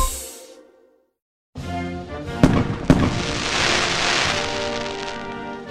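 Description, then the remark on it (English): After a moment of silence, fireworks erupt with two sharp, loud bangs followed by a dense, continuous crackling and popping that fills the air like sizzling rain. “Summers just wouldn't be the same without the snap, crackle, pop of fireworks, especially on the 4th of July.”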